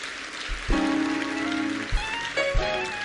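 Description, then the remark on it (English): A church audience applauds the mothers on Mother's Day with dense, steady hand clapping, a continuous crackling wash of many hands, joined by a sustained low musical tone and a few soft low thumps. “Let's get the mothers a hand clap.”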